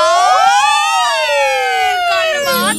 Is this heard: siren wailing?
yes